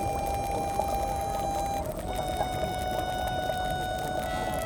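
Continuous dense bubbling and gurgling of thermal hot spring water, steady, with a faint sustained tonal hum running through it; no voices.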